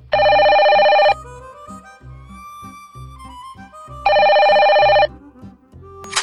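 telephone ringing

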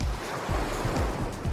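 sea waves and wind

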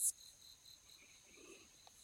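insect chirping

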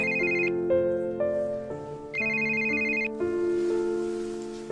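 phone ringtone

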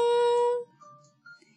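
doorbell ringing ding-dong

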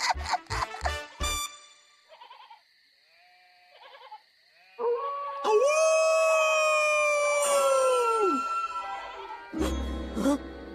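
wolf howling

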